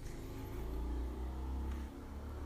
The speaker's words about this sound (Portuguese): No final dessa moto vai acabar o áudio.